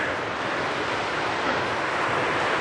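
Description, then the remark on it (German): A steady, broad roar of sea surf mixed with gusting wind at a beach with dunes, loud and continuous for the whole stretch, with no voices. “Und äh, naja, zwei oder drei von denen sind schon auf und schauen sich gerade auch bedächtig das Meer an.”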